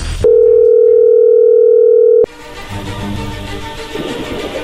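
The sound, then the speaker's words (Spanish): A telephone line tone from a phone call being dialed hums steadily for about two seconds at a mid pitch, then cuts off abruptly into a low, noisy background hiss with no voices. “Wow, bueno, pues ahí se está marcando.”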